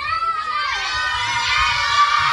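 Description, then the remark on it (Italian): A large crowd of young people in Milan shouts and cheers a greeting together in a loud, sustained roar, voices blending into one continuous wall of sound with no single speaker standing out. “Chiediamo ai ragazzi se ci fanno un saluto, visto che non c'è la base.”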